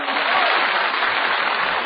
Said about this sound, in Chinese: 姑娘们，赶快欢呼起来吧！